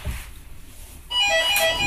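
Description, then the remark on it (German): A doorbell at home starts ringing partway through after a quiet stretch, a loud, bright, sustained chime with ringing overtones that carries on to the end, with no voices over it. “Jetzt läutet es bei mir.”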